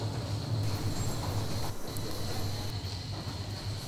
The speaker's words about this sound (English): Yeah, and this is one of the most amazing spots in this uh, subway station.